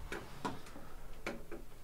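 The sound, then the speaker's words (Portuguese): Steady, crisp ticking from an original old IBM mechanical time clock (punch clock), sharp clicks at an even pace, moderately quiet against a faint low background hum, with no voices. “Essa é a máquina original. Você sabe que a IBM produziu é, esses relógios no passado.”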